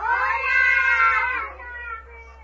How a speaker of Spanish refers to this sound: Un saludo desde ahí, todos los niños, échense un grito. Todos los niños un grito desde ahí, para que sepan cuántos son. Todo el kinder, por favor.